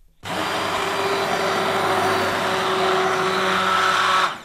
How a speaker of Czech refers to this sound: A můžeme rozmixovat. Ponorným mixérem. Ponorným mixérem. Do hladka, dobře.